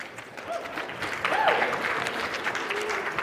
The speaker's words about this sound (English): You guys could literally do nothing and they would applaud because they love you. you are, you're, that was your parents clapping for you right there.